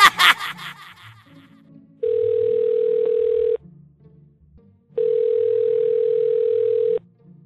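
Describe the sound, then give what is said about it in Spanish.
A brief burst of laughter gives way to two long, steady phone ringback tones, each lasting about a second and a half and separated by a pause, with faint background murmur, as a call is placed to a beauty salon to book an appointment. “Voy a llamarlo para sacar cita ya.”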